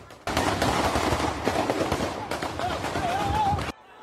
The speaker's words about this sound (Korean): 미국 플로리다주 템파의 한 중심가. 헬로윈 파티를 즐기던 사람들이 갑자기 거리로 쏟아져 나옵니다. 어디선가 총격이 들리고